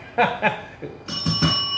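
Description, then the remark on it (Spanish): A bright bell rings in quick repeated strikes, its metallic tone sustaining fairly loud, after a couple of short, muffled bursts of sound at the start. “No, no nos campana cuando estoy aquí en este programa porque es más formal, pero valió la campana.”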